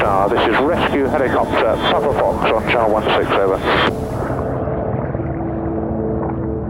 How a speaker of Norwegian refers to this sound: Etter hvert så kommer det helikopter flyvende inn mot eh, Scandinavian Star med søkelyset på de stopper eh, over oss og lyser på oss og ser at eh, det ser bra ut hos oss, og så fortsetter de da for å se om det er andre som trenger mer hjelp enn det,